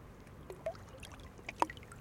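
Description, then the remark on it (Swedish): Outdoor waterside ambience at the Lidingövarvet boatyard on Lidingö, Sweden, with soft lapping water and small knocks and clinks, like boats moored at a jetty, with one brighter clank standing out near the end. “Nu är vi på Lidingövarvet på Lidingö och jag hade min båt stående här mitt på bryggan kan man säga, mitt på, eh, det här, på tåbryggan.”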